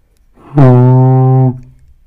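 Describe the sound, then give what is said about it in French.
A single low, steady note blown on a tuba, held for about a second, loud, with a rich buzzy tone that sounds almost like a foghorn. “Ça, c'est un dos grave.”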